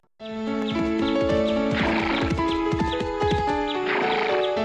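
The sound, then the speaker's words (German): Steady clip-clop of horse hooves trots along beneath a sustained musical backdrop, with a horse's whinny rising in the middle, from the horse-riding video game Barbie Racing Ride; fairly loud, with no talking. “This is an amazing place where you can go horseback riding along trails and obstacle courses.”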